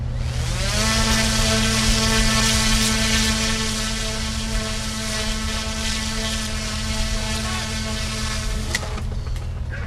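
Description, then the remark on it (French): A mini-drone with a 2-metre wingspan, catapulted from a ship's upper deck and climbing away, drones loudly and steadily with a buzzing, harmonic whine that holds unwavering for the whole stretch, with a brief sharp knock near the end. “D'une envergure de 2 mètres de long et autant de large, ce mini-drone est catapulté depuis le pont supérieur du bateau. En quelques secondes, il prend de la hauteur puis disparaît du champ de vision.”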